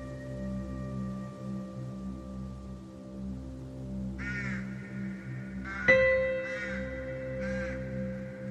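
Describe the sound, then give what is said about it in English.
A raven caws four times in the second half, harsh, the calls spaced unevenly over a steady low droning hum that runs throughout. “Under the moonlight, the raven's feathers gleam like fresh paintwork. It watches curiously as my hands claw at the ground.”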